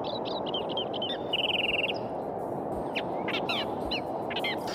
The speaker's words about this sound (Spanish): Aleteando junto a nuestra madrecita están todos estos pajaritos.